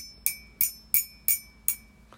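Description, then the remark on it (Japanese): Five crisp, evenly spaced taps on the body of one of two ceramic mugs, each a bright clink with a high, sustained ring, clear, followed by a fainter sixth tap; a metronome is used to keep the rhythm. “マグカップを2つ1個は両方とも陶器でできていますで取っ手の音がこれ取っ手の音これボディ”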